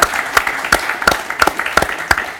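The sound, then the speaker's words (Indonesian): An audience applauds the speakers of a panel discussion with steady, dense clapping, sharp claps standing out in a regular rhythm over a continuous wash of hand noise, holding at a fairly loud, even level throughout. “Boleh dong berikan tepuk tangannya untuk para narasumber kita di sini.”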